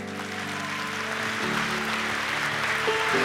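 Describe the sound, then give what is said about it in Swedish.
A crowd applauds steadily with a dense, even wash of clapping lasting several seconds, while sustained musical tones hum underneath. No one speaks. “Ska vi ge våra vänner en stor applåd?”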